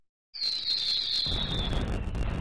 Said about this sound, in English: Let me do the fireworks.